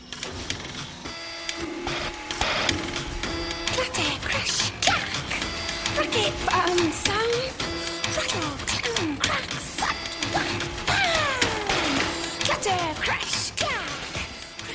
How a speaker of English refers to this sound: In this scene, Selma is working at her job in the factory, and to distract herself from the tedium, she focuses on the whirs and bangs of the machines. To Selma, even the awful din of a factory can be music.